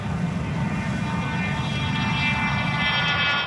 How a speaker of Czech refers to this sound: Letadlo s chlapcem na palubě před malou chvílí vzlétlo z ranveje brněnského letiště.